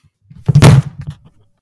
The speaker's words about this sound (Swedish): Nej, äh, jag, jag tappade mikrofonen. Ähm, jag gör det ibland.